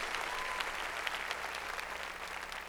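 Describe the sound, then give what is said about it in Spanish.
An audience claps loudly for the Lord, a dense, sustained burst of applause from many hands filling the space without pause, with a faint murmur of voices underneath. “Entonces, a ver, démosle palmas fuertes al Señor.”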